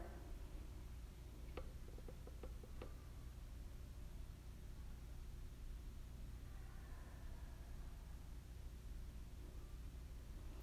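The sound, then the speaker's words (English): A short burst of faint ticks, about half a dozen quick clicks in an irregular run, early on against a steady hiss of low background noise, then only the hum continues. “I heard like ticking, like.”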